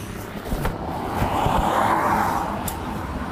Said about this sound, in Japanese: まあ、やってますが、ちょっと自転、車も多いところ音うるさかったかもしれないですけど、はい、っていう感じで今やってて